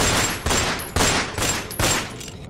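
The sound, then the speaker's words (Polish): A police officer fires a quick volley of about five loud gunshots at a man advancing with a raised knife, evenly spaced roughly half a second apart, each sharp crack trailing into a brief echo. No one speaks. “Ruszył w stronę celującego do niego policjanta, unosząc nóż.”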